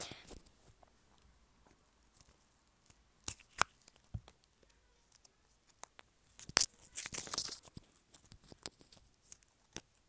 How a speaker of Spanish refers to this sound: Mm, bueno, escuchen cómo abro mi chicle. Para comenzar el ACMR, claro.